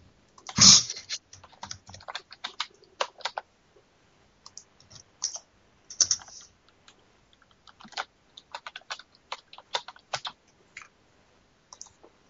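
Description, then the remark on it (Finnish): Rapid, uneven clicking of keys on a computer keyboard with a microphone attached to it, with bursts of quick taps separated by short pauses, clear, with no talking. “taas nussit sitä näppäimistöä, että kuuluu tänne asti.”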